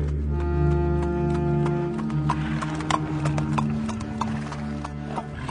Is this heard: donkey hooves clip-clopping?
yes